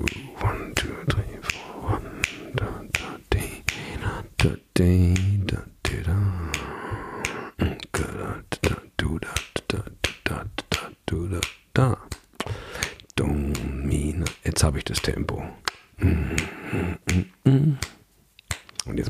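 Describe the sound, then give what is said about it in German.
Sharp finger snaps repeat in a steady rhythm, marking a basic tempo as a pulse. The snaps are crisp and fairly loud, while a voice counts along in English and talks over the beat. “Den haben wir jetzt und jetzt müssen wir schnippen dazu.”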